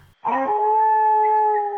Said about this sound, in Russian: Надо же, как здесь собаки воют. Прямо волки.